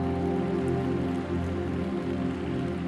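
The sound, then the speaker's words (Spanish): Steady, dense clapping from a crowd welcoming a first-time visitor fills the whole clip at an even, fairly loud level, with a faint sustained tonal hum running underneath and no talking. “Sé bienvenida, denle un fuerte aplauso por favor.”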